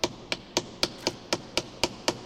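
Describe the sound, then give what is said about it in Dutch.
Nine sharp hammer blows on small metal wedges ring out in a steady, quick rhythm, each a bright clink with a short decay, no voices. The wedges are being knocked in between the underside of a stone tomb lid and the side of the grave to loosen the lid from its base. “De deksteen is de voorbije dagen losgemaakt van zijn basis door kleine spietjes te kloppen tussen de onderkant van het deksel en de zijkant van het graf.”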